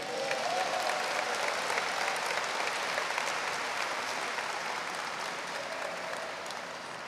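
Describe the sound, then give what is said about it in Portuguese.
An audience applauds steadily for about seven seconds, a dense, even patter of many hands clapping that stays fairly loud throughout and eases slightly toward the end. “Uma salva de palmas para eles, né?”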